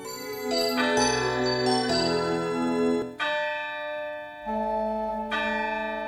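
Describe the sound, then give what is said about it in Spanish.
A clock strikes twelve with deep, resonant bell tones, each ringing stroke overlapping the last in a slow sequence of shifting pitches. No voices accompany it. “El sonido del reloj dando las doce despertó a Scrooge.”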